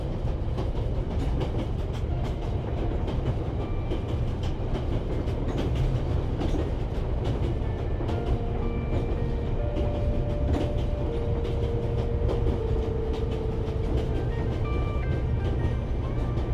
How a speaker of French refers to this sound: roulis du train apporte une détente bienfaisante sur votre corps, qui se relâche et se calque sur son mouvement.